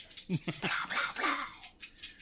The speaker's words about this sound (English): but then, uh, hold on and wait till the dog's done. Huh? Him's got the itchies